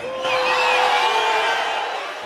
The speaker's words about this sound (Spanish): o sea, en el video oficial de la transmisión del traspaso de mando, perdón, se escuchan los gritos de la gente.